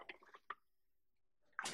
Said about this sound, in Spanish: Ok. Entonces voy a colocar los vegetales en el vaso de la licuadora